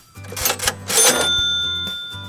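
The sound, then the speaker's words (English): A cash register ka-ching: a couple of quick mechanical clunks and clatters, then a bright bell tone that rings on and slowly fades, with no one talking. “And Joseph's idea is for a cash machine that turns regular paper into $5 bills.”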